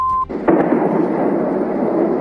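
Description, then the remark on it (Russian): A short electronic beep cuts off as a powerful explosion from a missile attack booms, followed by a heavy, sustained rumble and crackling roar that fills the rest of the moment, loud. The night attack by ten missiles began around 3 a.m., with fire in Sevastopol. “В сеть люди выкладывали страшные кадры с мощными взрывами.”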